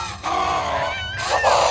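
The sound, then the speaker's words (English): A loud roar from a misshapen humanoid monster with mouths and teeth, gurgly and groaning, with a wavering, strained, almost childlike pitch, sustained for nearly two seconds with no talking. “And it lets out this gurgly, groaned roar as if a child's voice was inside of it.”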